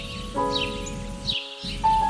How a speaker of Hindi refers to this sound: कुछ पल की चिड़ियों की चहचहाट के बाद